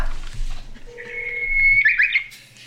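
Steady electronic phone tones of an outgoing call placed by an SBS reporter to baseball player Noh Jin-hyuk: a short lower beep, then a longer, higher sustained tone that warbles briefly near the end, over a faint low hum with no talking.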